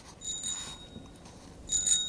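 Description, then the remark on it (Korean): A bicycle bell rings twice, two bright metallic trills with a short pause between them, clear, with no voices. “네, 자전거 벨소리입니다.”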